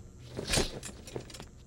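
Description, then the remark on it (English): Keys jangle in a short burst of bright metallic clinks, loudest near the start and then rattling a few more times, with no voices. “I've had the keys for months.”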